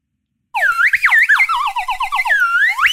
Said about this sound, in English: yes, it is. It is a slide whistle.